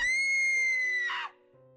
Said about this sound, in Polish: Ledwo już widząc na oczy, nagle usłyszał krzyk swojej żony dochodzący z kuchni.